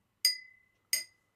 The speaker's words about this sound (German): Ja, also wenn man an Glas schlägt, mach noch mal mit dem Löffel.